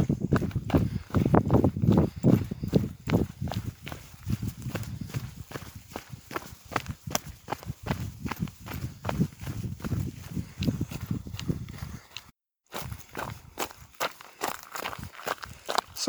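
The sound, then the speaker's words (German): Steady footsteps crunch downhill along a long, stony gravel forest road at a brisk, even walking pace, fairly loud, with a soft rumble of wind and a brief break in the sound near the end. “geht es nun am langen Weg einer steinigen Forststraße bergab.”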